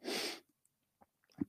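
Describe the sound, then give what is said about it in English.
A single sharp, breathy sneeze bursts out at the start, followed by quiet rustles and a faint sniff or murmur near the end. No one speaks. “Okay, well, bless you”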